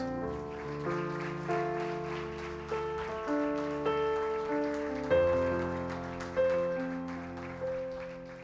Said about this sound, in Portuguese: Amém e amém. Aplauda Jesus, queridos.